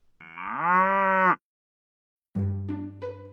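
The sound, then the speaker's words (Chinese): A dairy cow moos twice, loud, drawn-out, rich harmonic calls, the first lasting over a second, then a one-second pause before a second, lower, rougher moo. “这一天早上，奶牛洛特在挤奶的时候就很兴奋。”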